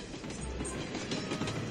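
A train rumbles along the rails with a steady, dense clatter, low wheel noise churning beneath a broad metallic hiss that stays loud and unbroken throughout.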